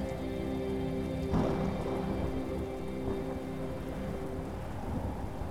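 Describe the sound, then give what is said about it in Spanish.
Steady rain pours down while low thunder rumbles through the storm, with a brief swell in the rumble early on. No voices, just a continuous wash of rainfall. “Recuerda que cada trueno, cada relámpago, es una nueva posibilidad.”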